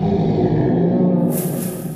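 creature roar sound effect

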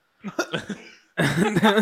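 cough

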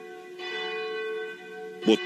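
cathedral church bell ringing

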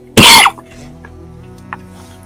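coughing

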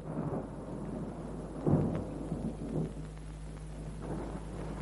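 thunder

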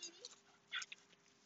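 dog whimpering

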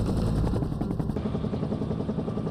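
helicopter rotor blades whirring

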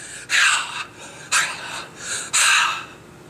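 heavy breathing

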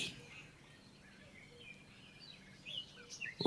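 birds chirping and singing

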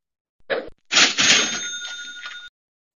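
cash register ringing

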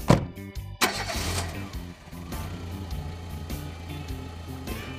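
car engine starting

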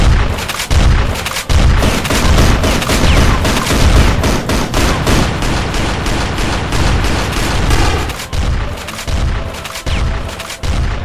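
volley of gunfire

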